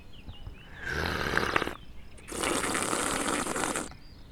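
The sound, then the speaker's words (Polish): Two loud slurps of tea, each a breathy, airy suck of liquid; the first lasts about a second, then a brief pause before a longer, steadier second slurp. It is a double slurp: tea is taken into the mouth, then breathed in with the tea. “A takie podwójne to brzmi tak.”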